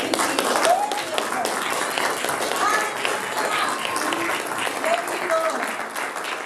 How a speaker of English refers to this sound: You know, someone just had the lights come on, and that's an awesome moment. Why don't we give God a hand for that?